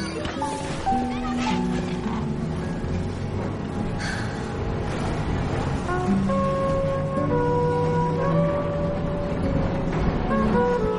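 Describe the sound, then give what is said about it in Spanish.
A tram moves off along its tracks again after stopping in front of a school, with a steady, loud mechanical rumble and rattle that holds for the whole stretch, while sustained musical tones drift over the noise. “Christine le da un beso en la cabeza para despedirse y vuelve a subir al tranvía, que reanuda la marcha.”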